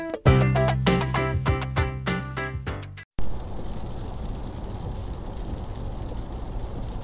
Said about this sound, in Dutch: Ik hoop dat je niet hoort dat het regent. Waarschijnlijk wel een klein beetje. Maar eh, ik heb speciaal mijn oortjes ingestopt, zodanig dat je er niet te veel last van zou hebben.